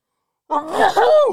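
A single fairly loud sneeze after a moment of silence, a short drawn-in breath swelling into a sharp, breathy burst that trails off with a brief voiced tail.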